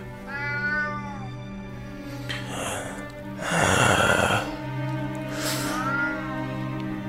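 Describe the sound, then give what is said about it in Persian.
Nazi, an ordinary patterned house cat, meows a few times, its high voice bending up and down in pitch, with raspy, breathy bursts between the cries and a steady low hum beneath everything. “روزا که از مدرسه برمیگشتم نازی جلو می دوید میو میو می کرد خودش را به من میمالید”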